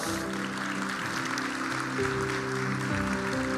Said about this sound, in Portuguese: Queria só honrar o pessoal do Relevance Hope, que fizeram uma ação aqui na igreja para mais de 150 crianças aqui da comunidade, né? O pessoal trouxe as crianças ali da comunidade, fizeram uma ação. que vamos uma salva de palmas para esse pessoal.